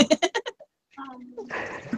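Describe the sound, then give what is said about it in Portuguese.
A person imitates a cow with a drawn-out, low mooing sound, fairly loud. It comes after a quick burst of rhythmic vocal sounds and a short pause, and ends in rougher, noisier voicing. “É o canhão a vaca.”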